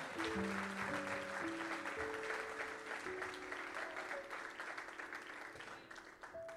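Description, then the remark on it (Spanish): A church audience applauds loudly for the Lord during a sermon, a dense, steady roar of many hands clapping for several seconds, with a few sustained tones beneath, easing slightly toward the end. “Alguien que le dé un aplauso fuerte al Señor.”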